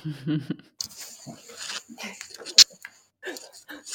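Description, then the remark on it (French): Close, irregular crinkling and rustling of plastic as a dog chews at a bag, with one sharp crackle near the end and a brief voice at the start. “Hmm je fais un break une seconde, mon chien est en train de manger un sac plastique, donc je vais aller manger.”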